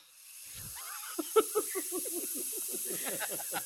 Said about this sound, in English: Can you put on the old lady fart sound?